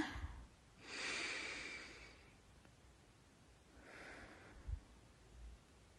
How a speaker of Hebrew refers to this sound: וזהו, שוב מזמינה אותך לקחת נשימה עמוקה.